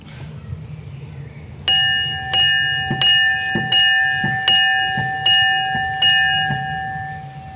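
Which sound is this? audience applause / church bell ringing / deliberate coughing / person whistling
church bell ringing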